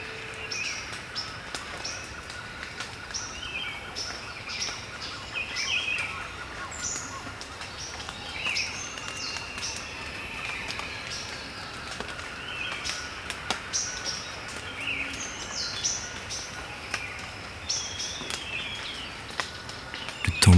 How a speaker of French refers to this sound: les claquements secs des gouttes d'eau sur les feuilles, avec la condensation du petit matin. Pas de doute, nous sommes en forêt tropicale.